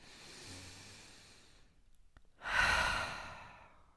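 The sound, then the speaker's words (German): A long, slow, deep breath drawn in, a brief pause, then a stronger, airy exhale, with no talking. “Also ich merke wirklich, dass ich ein großes Bedürfnis habe, tief zu atmen.”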